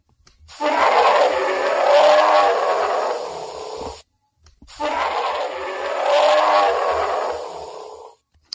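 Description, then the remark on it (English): A grizzly bear roar, heard twice in a row: two long, loud, rumbling growls of about three and a half seconds each, identical, separated by a brief silence, with no talking. “They use a grizzly bear roar.”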